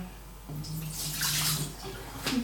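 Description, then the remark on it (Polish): Water runs steadily from a tap into a pot, about 1.5 litres to be boiled for pasta, a continuous splashing rush that fills out and swells for a couple of seconds, with no talking. “Teraz nastawię sobie wodę na makaron, ponieważ tej wody będzie całkiem sporo i ona będzie musiała mi się e, zagotować.”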